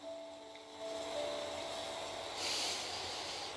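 A sound effect of steady hissing rain with the low rumble and faint humming tones of a vehicle, swelling into a brief louder whoosh as it passes, with no voices.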